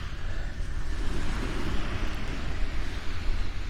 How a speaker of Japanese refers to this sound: これって声聞こえてますかね大丈夫ですか波の音が結構入ってくると思うんですけど